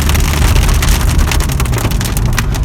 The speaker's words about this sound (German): Okay, also diese Hintergrundgeräusche jetzt ist übrigens ein beginnender Regen.